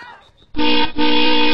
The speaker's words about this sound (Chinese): 老爷车鸣着喇叭，他还轻轻的嘘了一声，赶跑了一只小兔子，没有伤到它一根毫毛。嘟嘟嘟嘟嘟。